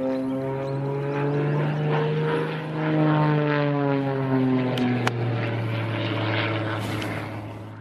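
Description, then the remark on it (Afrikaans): A propeller aerobatic plane, flown by South African competitor Neville Ferreira of Pretoria practising for an aerobatics competition, drones loudly and steadily overhead at Kitty Hawk airfield, its engine pitch shifting and sliding as it manoeuvres, with a couple of sharp clicks partway through and no voices. “'n Suid-Afrikaanse deelnemer van Pretoria, Neville Ferreira, was hard aan die oefen toe Spectrum hom by die Kitty Hawk vliegveld raakgeloop het.”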